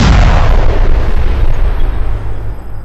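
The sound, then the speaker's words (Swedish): An explosive charge detonates at an elevator door: a loud explosion blast with a deep rumbling roar that fills the whole clip, slowly decaying into crackling debris and a sustained low-frequency rumble, with no voices present. “Det blir ju ett inferno av explosionen och sliter ju med de andra.”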